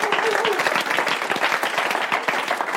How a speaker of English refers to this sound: Let's give Jesus and one another a big round of applause in Jesus' name. Amen.